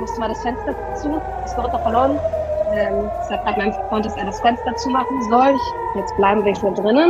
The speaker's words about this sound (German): Oh, es gibt gerade Raketenalarm